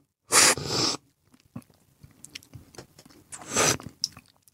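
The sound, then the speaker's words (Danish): Two loud, airy slurps of coffee from a nearly full cupping spoon during a coffee tasting, with soft lip smacks and small mouth noises in the pause between them; no talking. “Så må man gerne smaske lidt, når man øh, smager.”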